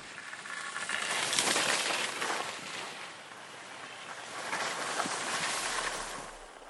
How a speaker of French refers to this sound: Vous l'avez peut-être vu, tous les soirs, le ballet des dameuses se met en marche dans les stations de ski. Alors le damage, il permet de tasser la neige pour créer des pistes homogènes et régulières, de sécuriser le domaine